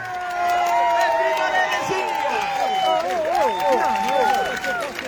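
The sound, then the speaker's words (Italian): A large crowd at a dissent rally in a public square applauds and cheers loudly, dense clapping mixed with whoops and rising shouts that sustain throughout. “E allora un grande applauso da tutti voi a questa piazza che dissente!”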